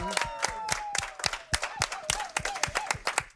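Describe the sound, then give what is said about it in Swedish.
A small crowd claps in sharp, steady bursts while a high, wavering cheer or whistle carries on above the applause for a few seconds, as two people lift a dance trophy together on the Mix Megapol radio morning show. “Ni får ställa på varsin sida om den här bucklan och gemensamt till folkets jubel lyfta danspokalen!”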